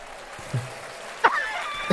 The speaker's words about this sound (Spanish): ya lo puse, ya le di una ovación, standing ovation, por su chiste.